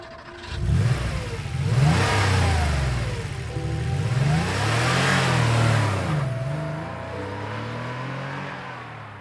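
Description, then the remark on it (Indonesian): A car that had stopped starts up and revs, rising and falling in pitch as it accelerates and pulls away, staying fairly loud throughout with no voices. “Mobil itu berhenti, lalu pergi”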